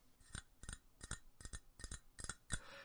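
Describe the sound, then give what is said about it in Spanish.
A ceramic owl-shaped mug with a removable skull top is tapped about seven times in a steady rhythm, each sharp, ringing clink distinct, with the final tap slightly louder and trailing off. “Es cerámica pura sonido es potente.”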